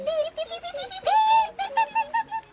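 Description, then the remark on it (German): Sparrows chirping in a busy run of quick, bright, warbling calls, fairly loud, with one longer rising call in the middle and no pauses between the chirps. “Spatzen stehen auch schon in den Startlöchern.”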